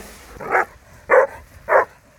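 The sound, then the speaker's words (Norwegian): A briard barks three times in a steady, evenly spaced rhythm, each bark short and fairly loud, with quiet background between them and no talking. “Denne briarden skal ut og gå.”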